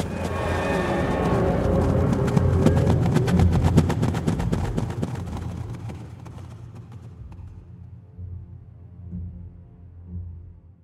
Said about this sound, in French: Les fantômes de chevaux galopent autour de sa tête en hennissant comme des diables.